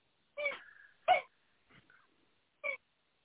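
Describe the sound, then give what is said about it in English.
A dog plays with a toy outside the room, making a few short, sharp squeaky bursts with pauses between them, with no talking. “No, that's my dog playing with a toy.”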